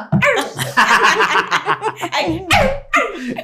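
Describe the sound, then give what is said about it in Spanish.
A woman vocally imitates a dog, letting out a string of rapid, yappy barks, with laughter-like breaths mixed in between the bursts. “Me ladré a mí misma.”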